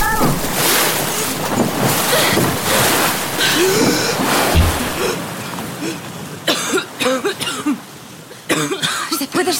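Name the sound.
ocean waves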